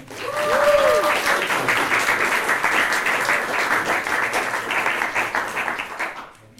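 A crowd applauds steadily for several seconds for Florian Kessler, a dense wash of many hands clapping at even loudness before tapering off at the end. A brief whistle-like tone rises and falls early on.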